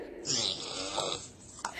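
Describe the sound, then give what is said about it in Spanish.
One long, raspy snore rattles for about a second, fairly loud, then trails off with a short breathy snort at the end. “Un ronquido sale de su entrepierna.”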